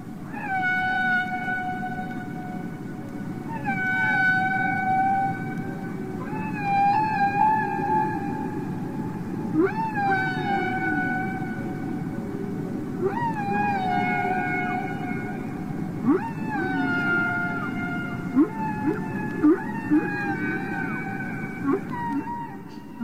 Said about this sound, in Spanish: Estos cantos de ballenas jorobadas llegan a durar 20 minutos. Son largas y como les decía, hay variaciones. Si es que nos dedicamos a escuchar esos 20 minutos, nos vamos a encontrar con variaciones de rítmicas, tonales